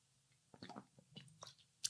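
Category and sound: food or drink, sipping water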